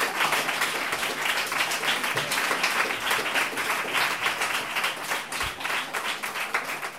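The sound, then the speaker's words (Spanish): Sustained audience applause fills the whole stretch, a dense crowd of many hands clapping steadily at a fairly loud, even level, with no speech standing out. “Un aplauso fuerte para, para el Festival de la Libertad.”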